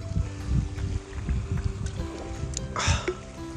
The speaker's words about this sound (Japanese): 皆さん聞いてくださいこの波音やっぱりあの波の音ってね癒されるなって、うん、思うわけですよ